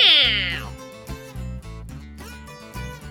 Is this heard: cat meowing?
yes